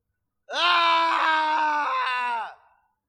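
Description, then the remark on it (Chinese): A single long, distant scream of agony from a man, a strained, raspy cry held at a steady pitch for about two seconds with slight wavering, then quickly trailing off, heard while wooden cabins are burning. “一声悠长的惨叫遥遥传来，这种因为痛苦至极而变形走调的声音，很难分辨是谁发出来的，尤其是在木屋被火烧的断裂崩塌的声音干扰下，只能隐约听出是男声。”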